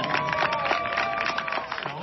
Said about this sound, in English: I would like to introduce to you, the very proud graduating class of 2021 from California State Prison in Lancaster. If we could give them a round of applause as they walk